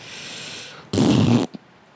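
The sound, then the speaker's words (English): A single loud, sputtering mouth fart, blown through the lips for about half a second, then a tiny trailing puff before quiet returns. “see my fart noise again.”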